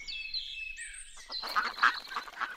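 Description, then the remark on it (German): A duck quacks several times in quick, raspy bursts, fairly loud, after a brief squeaky, whistling call at the start. No one speaks. “Quack. Nun gut, wir versuchen es anders.”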